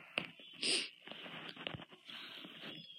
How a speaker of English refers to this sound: Um, so I'm yawning a lot today, and it's like getting in the way of this, so sorry if I yawn.